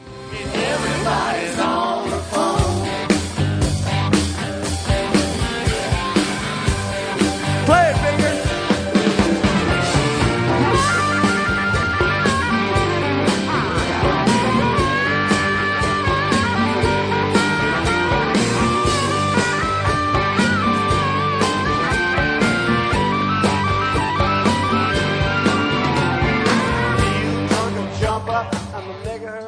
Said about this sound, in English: harmonica solo and they added it to the live performance.